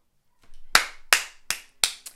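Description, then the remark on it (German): Several sharp hand claps in a slightly uneven rhythm, five bright bursts with a softer rustle before the first, the last clap quieter than the rest. No talking. “Und ich habe gerade geklatscht.”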